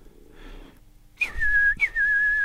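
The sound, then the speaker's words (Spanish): Two loud, piercing human whistles made by a chief through tightly pursed lips, each starting with a brief rise and then holding a steady high pitch, the second following right after the first, with faint rustling before them. “Silbó el jefe, cuyos labios, recogidos como un culo de pollo, dieron a ese silbido una extraordinaria intensidad.”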